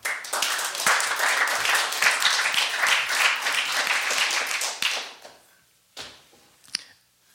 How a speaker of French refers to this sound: Vous pouvez l'applaudir.